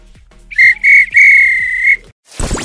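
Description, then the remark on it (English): A referee's whistle sounds loud in the classic full-time pattern that ends a football match: two short sharp blasts followed by one long blast, then a brief whooshing burst. “If this were a real bit of extra time, this is when the ref would blow the whistle because it's finished.”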